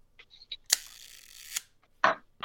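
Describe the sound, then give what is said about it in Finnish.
An old camera lens shutter, set to half a second, fires with a sharp click, whirs for about a second, then snaps shut with a second click. Faint handling ticks come before it and a rustle after. “Pannaan se nyt se puoli sekuntia ja se kuulostaa tältä.”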